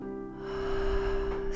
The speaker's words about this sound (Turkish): Derin bir nefes al. Ve ağızdan